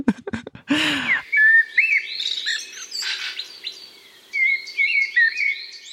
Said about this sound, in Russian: А вот черный дрозд, например, он поет прям подолгу.